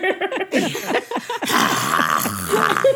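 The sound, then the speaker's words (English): A person makes rough, guttural throat noises to imitate a dragon breathing fire, starting with choppy voiced growls and sliding into a sustained, raspy, breathy roar. The sound is fairly loud. “I thought you had something stuck in your throat”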